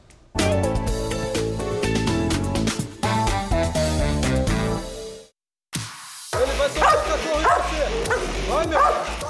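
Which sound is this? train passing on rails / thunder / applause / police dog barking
police dog barking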